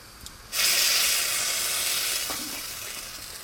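After a brief quiet moment, a loud sizzle bursts in and holds steady, slowly easing off, as breadcrumbs fry in a hot pan and boiled dumplings are put in. No voices.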